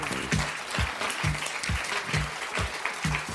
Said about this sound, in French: Mesdames et messieurs, je vous prie de l'accueillir sous un tonnerre d'applaudissements